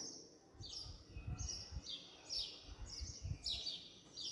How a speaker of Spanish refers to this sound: Parad un momento cualquier aparato, música o ruido y escuchad a los pájaros. Siempre me han alegrado la vida, pero ahora, ahora que el aire está limpio y el ruido más callado que nunca, me parecen un milagro